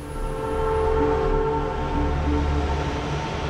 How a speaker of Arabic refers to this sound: ظلام دامس يلف مطار العاصمة المالية باماكو سكون المقابر يخيم على المكان يكسره فجأة صوت ارتطام عجلات طائرة عسكرية عملاقة بأرضية المطار